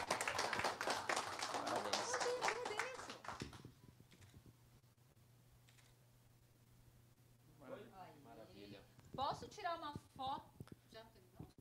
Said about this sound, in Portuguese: Uma calorosa salva de palmas.